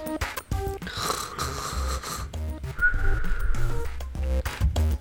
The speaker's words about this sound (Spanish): Dos ronquidos, dos silbidos.